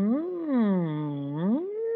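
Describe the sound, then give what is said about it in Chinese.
A steady closed-mouth hum lasting about two seconds, made as a tongue-tip speech practice exercise, its pitch dipping low and then rising again, while the muffled tone keeps shifting as the tongue tip circles around the upper and lower teeth inside the closed mouth. “然后它是你的嘴巴闭起来，然后你的舌尖呢可以绕着你的上面的牙齿，然后下面的牙齿的周围。那所以如果发出声音会是像这样，因为嘴巴是闭起来嘛，好，所以会这样的声音。”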